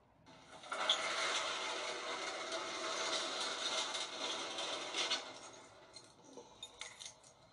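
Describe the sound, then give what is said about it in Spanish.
A pharmacist pulls down a pharmacy's metal shop shutter at closing time. It rattles down in one steady, clattering rush for about four seconds, then settles with a few scattered clinks and knocks. No one speaks. “El farmacéutico miró el reloj y al ver que era la hora de cerrar, bajó la puerta metálica, feliz ante la idea de que iba a irse a casa a cenar.”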